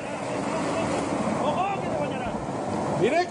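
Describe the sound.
A steady, dense roar of rushing floodwater fills the whole clip as a previously dry river rises within minutes and flows over a bridge, loud throughout, with brief voice-like sounds rising faintly above the torrent near the end.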